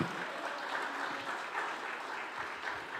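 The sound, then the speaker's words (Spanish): A crowd applauds loudly and steadily, a dense wash of many hands clapping at once with no pauses, holding an even level throughout. “Dele un aplauso fuerte.”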